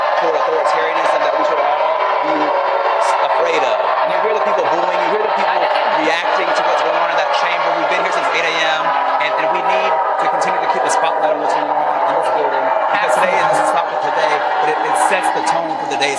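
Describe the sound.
A large crowd boos steadily and loudly, a dense, continuous roar of many voices with scattered shouts rising above it, never letting up for the whole stretch.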